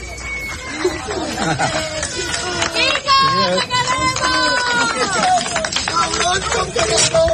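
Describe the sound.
A crowd made up of the whole neighbourhood cheers and calls out together to bid farewell to a driver, in a loud, continuous hubbub of overlapping voices, with raised shouts rising above the chatter throughout.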